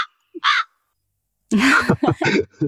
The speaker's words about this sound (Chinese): 啊，这个这个这个乌鸦有点像我，是吧？就是带着一种好奇的叫声啊，就是我也很好奇